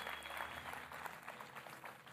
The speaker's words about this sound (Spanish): Vamos a darle un aplauso a esos.